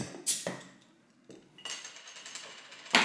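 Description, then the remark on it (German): Glasses clink a few times, then gin and tonic is poured steadily into small glasses with a soft hissing splash, ending in a bright, sharp clink of glass. No one speaks. “Schön, wie du einschenkst.”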